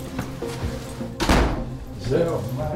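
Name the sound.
front door closing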